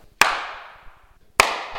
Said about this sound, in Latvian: Ja es tagad sastīšu plauksts, tad nebūs nekāda atbalsts, bet būs skaņas rimstoša tāda.